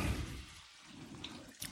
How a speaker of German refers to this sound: Das Wasser für die Fischklöße soll übrigens nicht sprudeln kochen. Das tut es jetzt zwar, aber das werden wir gleich entsprechend kleiner stellen